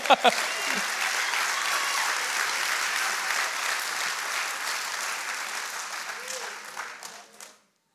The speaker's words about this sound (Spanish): Dale palmas al Señor.